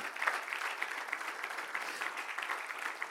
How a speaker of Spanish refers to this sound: Alguien puede darle un fuerte aplauso a Cristo.